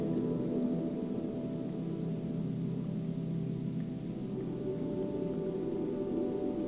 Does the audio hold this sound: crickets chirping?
yes